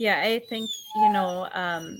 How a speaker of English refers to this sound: sorry, that's my dog barking.